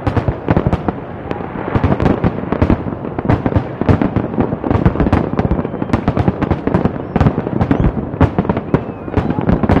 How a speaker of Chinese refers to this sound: 先跟我们一起进去看看美丽的跨年烟火吧。